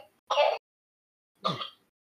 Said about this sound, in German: Entschuldigung, mein Kleiner hustet gerade.